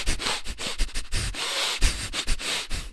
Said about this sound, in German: Und in dieser Phase atmest du durch die Nase ein und aus und zwar so intensiv, so schnell und so chaotisch und so durcheinander wie möglich.